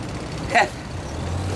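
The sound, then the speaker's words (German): Steady low rumble of city highway traffic from a motorway access road to a bypass, with a brief, brighter burst of noise breaking through about midway before the even drone resumes. “Hier reissen sie ein Hotel ab und da vorne ist die Autobahn Autobahnzufahrt zur Umfahrung.”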